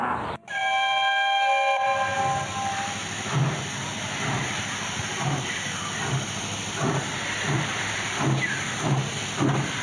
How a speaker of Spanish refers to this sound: Atención, va a efectuar su paso un tren sin parar.